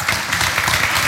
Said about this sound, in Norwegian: Du er konsul! Altså er ikke det ganske rått? Applaus.